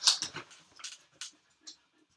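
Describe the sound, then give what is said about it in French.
A dog right behind the speaker during a live stream makes a few short, soft whimpering and shuffling sounds in quick bursts that grow sparser and quieter over about two seconds, with no one speaking. “en fait, ça se voit pas, mais il est juste là, le chien.”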